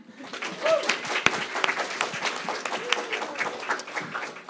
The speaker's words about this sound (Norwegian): Det har vært en liten applaus, syns jeg.